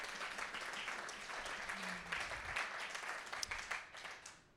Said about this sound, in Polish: Widzę, że te oklaski tak do raz, dwa, trzy, cztery, do piątego rzędu sięgają. Słuchajcie, ja wszystko widzę. I mamy taką małą zasadę, że jak jedna osoba klaszcze w tym miejscu, żeby jej głupio nie było, to wszyscy klaszczą, ok?